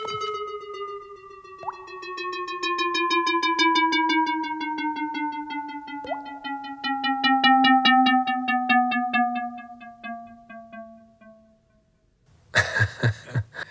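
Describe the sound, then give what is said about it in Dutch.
A buzzy synthesized tone, a sonification of the atmospheric spectrum of exoplanet WASP-96b, glides slowly downward in pitch with a fluttering pulse, broken twice by a short water-drop-like plonk marking frequencies found in the spectrum of water. A brief burst of noise closes it. “regelmatig hoor je ook een plong, en een, precies een waterdruppel die valt”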